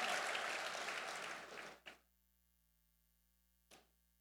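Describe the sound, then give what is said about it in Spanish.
A crowd applauds in a dense burst that tapers off after about two seconds, leaving a faint steady hum and two lone, scattered claps afterward. “Denle un aplauso Señor y ocupe su lugar.”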